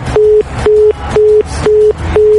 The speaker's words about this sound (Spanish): A ver, pues no, suena ocupado el teléfono.